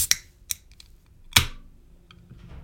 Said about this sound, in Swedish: Det är egentligen när man öppnar en flaska, men jag öppnar en burk här.